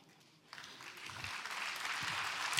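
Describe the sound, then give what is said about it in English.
An audience breaks into clapping after a brief quiet moment, the dense crackle of many hands swelling steadily and growing louder over a couple of seconds. “It's okay to clap, clap is free.”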